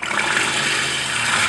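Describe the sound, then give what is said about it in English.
E.T., a trained walrus at the Point Defiance Zoo and Aquarium in Tacoma, Washington, sputters in a steady, wet, buzzing rush of noise that holds loud and even for about a second and a half, with no voices present. “has been trained to do a bunch of different vocalizations, like sputter”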